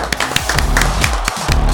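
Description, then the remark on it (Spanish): Sharp hand claps repeat at a steady pace, roughly four per second, loud, over a low, humming musical background with no one speaking, as applause welcoming a guest on the show. “Nada menos y nada más, por favor, un aplauso, caballero.”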